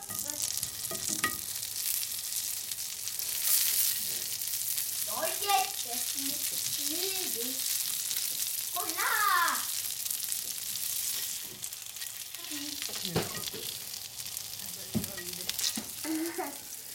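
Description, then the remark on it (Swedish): Steady, crackling sizzle of food frying in a pan runs throughout, with occasional clinks and scraping of utensils and a few brief, quiet voices in the background. “Vi lägger i dem här och steker dem.”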